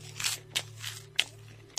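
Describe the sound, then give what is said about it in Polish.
Dry corn puff snacks being crunched while walking outdoors, about four crisp, crackly bites at irregular intervals over a steady low hum, with no talking. “Chrupki, takie suche, nie? Kukurydziane.”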